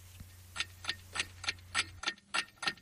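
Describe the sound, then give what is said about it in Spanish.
A somewhat unusual clock ticks steadily, about eight crisp, evenly spaced ticks with no voices, over a faint low hum that drops away partway through. “He oído por ahí un, reloj un poco raro, porque no nos lo pones a todos a estas horas, porque lo he oído eso de las 7 de la mañana.”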